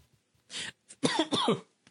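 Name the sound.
coughing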